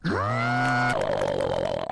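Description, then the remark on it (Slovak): A voice imitates a blender making a breakfast smoothie: a buzzy hum rises and holds steady, then turns into a rougher, rattling whir for the last second, loud. “Na raňajky som si v mixeri urobil smoothie.”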